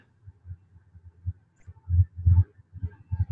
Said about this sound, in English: Sorry, I, I got to stop down for a second here. The train is going by. Train's going by.